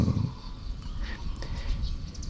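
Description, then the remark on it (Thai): Tailorbirds and sparrows chirp outdoors, a few short, high, scattered calls sounding fairly faint over a steady low background rumble, with no one speaking. “นกกระจิบกับนกกระจอก เสียง”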